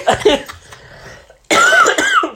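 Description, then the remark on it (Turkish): A harsh, wet coughing fit: a burst of raspy coughs, a brief rattly pause, then a louder, phlegmy hacking run with strained, gurgling throat sounds. “Ölüyorum. Şu balgamı at da bir”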